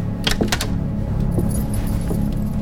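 Handcuffs clink and rattle as an officer unlocks and removes them from a man in a small courtroom, a quick burst of metallic jangling followed by a few softer clicks over a low, steady hum.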